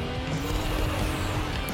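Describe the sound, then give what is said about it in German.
A video game car engine roars steadily as the vehicle drives and drifts, a constant loud rumble with a gritty, noisy texture and no voices. “Ein neues krankes Auto. Aha. Man kann driften.”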